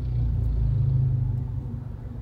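A steady, low engine rumble from inside a car driving to the airport, a constant deep drone with no voices and little change in loudness.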